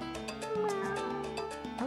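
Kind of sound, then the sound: animal, cat meowing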